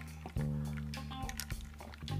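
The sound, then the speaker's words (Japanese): A drink being poured or sipped during a toast, with a wet, gurgling liquid sound that starts abruptly and runs steadily for about two seconds, with small squishy drips and no talking. “ねはい、とりあえず乾杯高性能なマイクだからねこれうんうん飲んじゃった乾杯”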